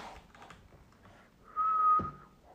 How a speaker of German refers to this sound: Und da habe ich wieder gepfiffen, weil ich einfach dumm bin. Nee, weil ich mir halt so angewöhnt habe.